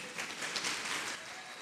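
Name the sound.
audience applause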